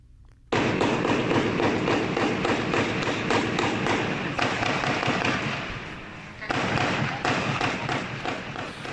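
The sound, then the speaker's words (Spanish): A loud, dense barrage of gunshots, including machine-gun fire, in the city of Córdoba, Veracruz, Mexico, last weekend: rapid cracks and thuds pile up almost continuously for several seconds, with a brief lull before another intense burst. “balazos, tiros, de metralletas”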